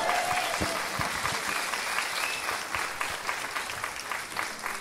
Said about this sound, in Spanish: ¡Fuerte el aplauso, venga!